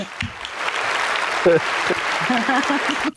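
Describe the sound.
A burst of audience applause, a dense steady clatter of many hands clapping for about three seconds, with a few voices calling out faintly beneath it before it cuts off.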